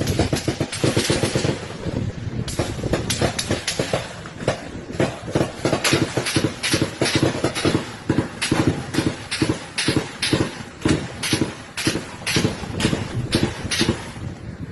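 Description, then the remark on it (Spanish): Sustained gunfire from an armed clash involving Mexican army soldiers at the Mexican border, with dozens of sharp, loud cracks coming in rapid, irregular bursts, barely pausing across the whole stretch. A steady wash of background noise runs underneath, with no voices. “Usted lo pudo escuchar, solamente esa es parte de los disparos y según la prensa mexicana esto se trató de un enfrentamiento entre militares del ejército mexicano en contra”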